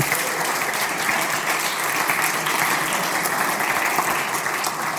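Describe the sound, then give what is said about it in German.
A crowd claps steadily and loudly throughout, a dense, continuous wash of applause from many hands, with no pauses and only faint hints of voices underneath. “Applaus.”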